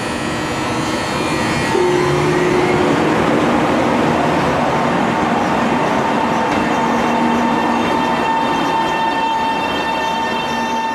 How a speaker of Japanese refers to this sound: 各駅停車で台湾中部台安駅に行ってまいりました。